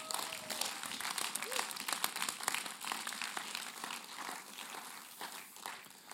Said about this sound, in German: einen herzlichen Applaus geben, so stark erzählst du aus deinem Leben.